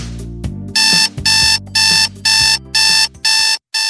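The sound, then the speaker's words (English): An alarm clock rings loudly in a fast, steady pattern of shrill electronic beeping bursts, about six in a row, with a low hum underneath. “Do you know what that sound is? That's your wake up call.”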